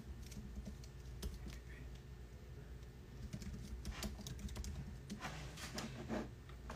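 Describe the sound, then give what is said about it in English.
Rapid, uneven clicking of computer keys as someone types through an insurance agency account, fairly quiet, with brief pauses between bursts over a low background hum. “I'm typing it through my insurance agency IG.”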